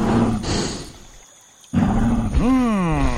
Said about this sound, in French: On dirait quelque chose qui souffle par des naseaux. Comme un gros cochon ou un taureau.